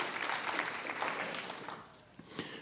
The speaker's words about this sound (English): Yeah, I heard a hand clap got started right there. I think we could just have a hand clap right there. It's like, yes.